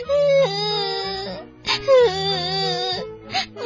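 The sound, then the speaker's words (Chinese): A kitten crying in an audio story: two long, drawn-out wailing meows, loud and high-pitched with a wavering, sliding tone, followed by a brief shorter squeak, with no talking. “猫妈妈突然听见猫孩子的哭声：“ 喵喵，妈妈，我怕。”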